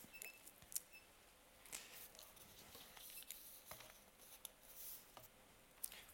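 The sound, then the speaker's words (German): Quiet paper rustling: irregular crinkles and small crackling handling noises spread across about six seconds, with no voices. “Jetzt habe ich da das Genusch mit Papier.”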